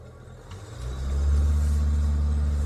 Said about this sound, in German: Und während Steffi dem Verkehrslärm zu entgehen versucht